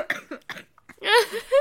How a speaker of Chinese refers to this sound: 我们一起来咳嗽，我们一起来咳嗽